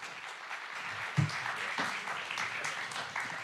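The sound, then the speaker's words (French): An audience breaks into sustained applause to welcome a guest onto the stage, a dense, steady wash of many hands clapping at once with a few sharper claps standing out, continuing throughout with no voices. “Et vous pouvez l'applaudir pour qu'il vienne sur scène.”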